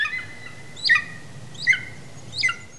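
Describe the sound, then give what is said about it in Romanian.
A golden eagle gives three short, high-pitched yelping calls, evenly spaced about a second apart, clear against a quiet background. “Triluri urbane. Acvila de munte”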